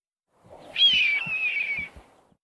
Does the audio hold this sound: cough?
no